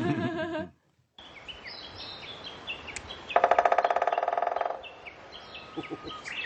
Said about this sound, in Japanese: 初めて聞きましたやっぱり、はい、なんかこうビジュアルとかでキツツキのついた穴は見てるんですが、うんこんな風な音なんだってか最初に音聞いてもわからなかったんですね、はい、じっと聞いてたらこれって最初は遠くから聞こえててあキツツキの音みたいな感じで